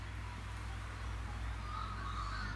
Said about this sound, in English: Listen to those birds. Now, here's the thing you can believe that there, is, there are birds, you can believe that they sing, you can believe that we have them in Australia, or you can listen to them.